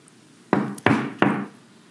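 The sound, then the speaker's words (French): Three firm knocks on a wooden door in quick succession, at the door of Touffu the Angora rabbit in the middle of the night, each a hollow thud with a short ringing decay, fairly loud, with no voices. “Ainsi, au beau milieu de la nuit, Casse-noisette et qui pique frappe à la porte de Touffu.”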